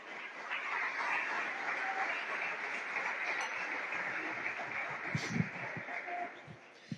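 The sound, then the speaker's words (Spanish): An audience at a morning Christian church service claps together in sustained, dense applause, a steady wash of overlapping hand claps that holds for several seconds before tapering off near the end. “Y le damos un aplauso a ese Dios maravilloso que está aquí en esta mañana.”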